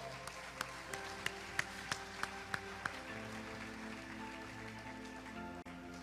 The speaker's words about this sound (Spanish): Dar un aplauso al Señor por esto.